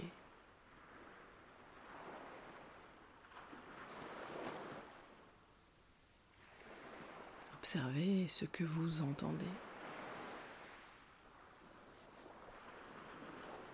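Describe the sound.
Soft ocean waves wash in and out on a beach in slow, broad swells, with a brief stretch of quiet speech partway through.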